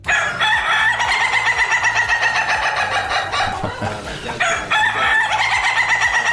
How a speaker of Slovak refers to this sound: Mali by ste vedieť o jednom kohútovi, ktorý keď zakikiríka, tak sa všetci hneď začnú smiať.